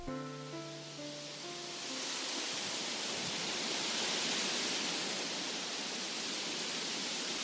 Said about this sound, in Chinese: 这是什么声音呢？原来是风穿过树丛的声音。